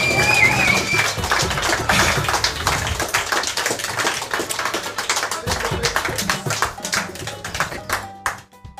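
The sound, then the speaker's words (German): A burst of applause, many hands clapping in a dense, steady patter that stays loud for about eight seconds before tapering off at the end. “das ja. war dein Applaus.”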